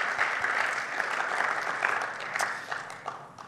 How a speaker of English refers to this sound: That deserves a clap of praise, doesn't it? Thank you, Lord. Awesome.